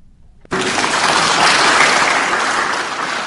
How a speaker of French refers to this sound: À l'entrée de leurs collègues de l'opposition dans l'hémicycle, tonnerre d'applaudissements des députés de la majorité.